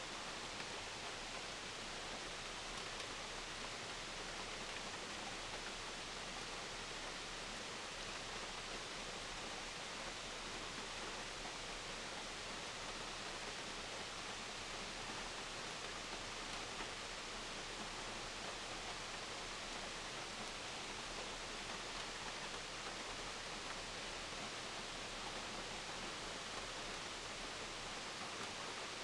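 A steady, dense roar of rushing water from a waterfall, holding an even loudness throughout with no pauses, voices or other sounds.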